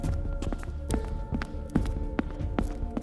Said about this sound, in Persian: حالا از روی پشت بوم صدای پا میاد انگار که یه نفر با عجله داره روی پشت بوم قدم میزنه